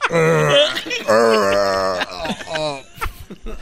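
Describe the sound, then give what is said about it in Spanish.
Exaggerated, theatrical groaning from a voice, as if someone is being strangled: two long strained moans followed by choked gasps and sputters, loud. “A todos parece que lo están ahorcando.”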